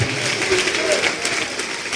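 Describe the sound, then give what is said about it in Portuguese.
A church audience applauds the Lord as people come forward, a steady, dense wash of many hands clapping at a sustained, fairly loud level with no clear individual beats. “E vamos aplaudir o Senhor por cada vida que está chegando.”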